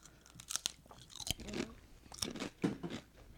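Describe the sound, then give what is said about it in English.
Crisp crunching of a cheese-flavored potato chip being bitten and chewed, with several sharp bursts in an irregular rhythm and no talking. “And then I'm gonna have to do Final Crunch.”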